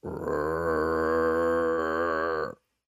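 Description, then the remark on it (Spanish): A voice imitates a rabid dog's menacing growl: one sustained, low, guttural rumble lasting about two and a half seconds at steady loudness, then cutting off into silence. “Y, ¿qué es eso? Damos otros pasos y más intenso, ¿no? Y Yo dije, es un perro que está rabioso.”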